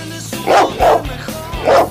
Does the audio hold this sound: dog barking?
yes